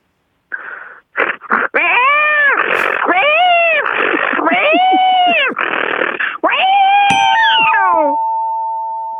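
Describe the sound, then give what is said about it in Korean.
A person's voice imitates a cat startled by the sound of a drill, letting out a string of loud, strained, wavering yowls and meows in quick succession, ending with a steady electronic tone after a sharp click. “드릴 소리 듣고 놀라는 고양이 갈게요.”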